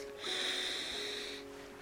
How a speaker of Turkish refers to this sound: Ve şimdi derin büyük bir nefes alıyoruz